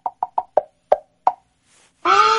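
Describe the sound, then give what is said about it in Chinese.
A voice imitates the dull thuds of a young man's elbow bumping against the speaker's head in a passenger carriage: six short, soft knocking plops in an uneven rhythm that slows toward the end, followed by a louder voiced sound cutting in. “我就看到这男生把手撑起来，把女孩子圈在中间，特别贴心护着他女朋友，然后他那胳膊肘就在我头上，啊撞啊撞啊撞啊撞啊撞撞，是吧？”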